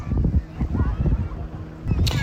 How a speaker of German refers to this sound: Im Hintergrund zieht hier gerade das Banana Riding Boot vorbei. Eine Sache, die ich eigentlich auch nur aus dem äh, Balearenurlaub kenne. Ein schönes knallgelbes Motorboot zieht eine Aufblasbanane mit vier Kiddies hinten drauf.